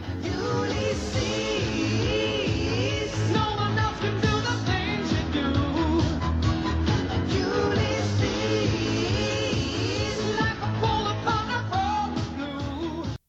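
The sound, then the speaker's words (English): Energetic theme music from the intro of Ulysses 31, a French-Japanese cartoon, thumps along with a driving beat, layered melody and sustained harmonies, staying loud and steady throughout with no voices over it. “It was a, I think it was a French-Japanese combination uh, cartoon, and it had a hell of an intro. Listen to this.”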